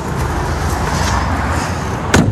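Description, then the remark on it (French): A flashy luxury car, lent by a car dealer as a prop for staging a house for sale, runs with a steady low rumble, with a sharp thump near the end like a door closing. No one speaks. “Des voitures plutôt tape à l'œil”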